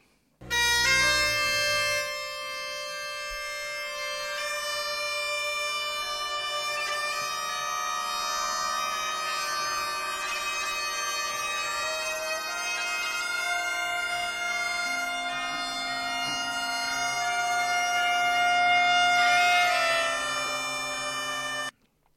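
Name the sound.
bagpipe playing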